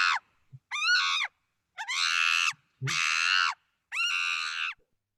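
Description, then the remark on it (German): Monkeys scream in five loud, harsh bursts, each lasting about half a second to a second, separated by short gaps, with a few low grunts between calls and no talking. “dann zum ersten Highland, Highland zum ersten Highlight gekommen, nämlich zu den Affen.”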